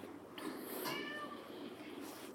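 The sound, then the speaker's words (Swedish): A single drawn-out cat meow rises and falls over about a second in an apartment, against a steady low background hum, with no one speaking. “Och katten låter också.”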